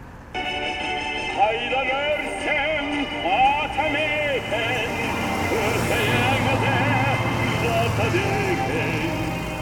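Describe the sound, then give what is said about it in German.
Steady city street traffic rumbles throughout with vehicles passing, while a tinny electronic melody, a patriotic pop song, plays from a speaker in a traffic-light push button at a pedestrian crossing in Kazakhstan, continuous and moderately loud. “Unten, auf Straßenniveau, haben die Verkehrsampeln Druckknöpfe mit Lautsprechern, die patriotische Schlager spielen.”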